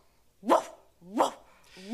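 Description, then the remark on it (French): A person imitates a big dog barking on command, giving three loud, deep woofs spaced roughly evenly apart, with no other sounds. “Faites le chien.”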